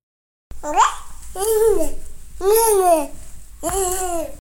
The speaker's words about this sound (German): Hört hier irgendwer zu, der oder die Baby spricht?